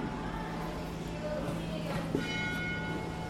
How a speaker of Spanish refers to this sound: campana al fondo.